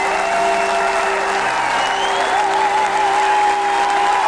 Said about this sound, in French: Tonnerre d'applaudissements pour cette musicienne classique, la plus courageuse que je connaisse.